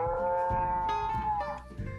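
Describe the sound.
A person's voice imitates a T-Rex roar: one loud, sustained, drawn-out bellow with a steady tone, filling about two seconds and trailing off at the end.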